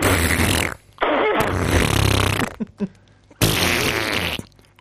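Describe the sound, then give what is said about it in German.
A voice imitates the strange noises a colon rinse makes when nothing is left in the bowel: three long, loud, raspy sputtering bursts separated by brief pauses, with a few short blips in between, like a mouth mimicking flatulent gurgles. “Und Darmspülung, wenn nichts mehr drin ist, dann macht das, äh, ähm, das macht komische Geräusche.”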